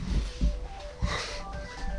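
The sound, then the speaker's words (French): A phone rings with a melodic electronic ringtone of sustained, shifting tones, playing over a low rumble with a few dull thumps. “Ah, j'ai alors j'ai un coup de téléphone.”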